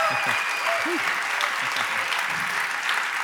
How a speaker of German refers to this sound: Danke vielmals für den Applaus.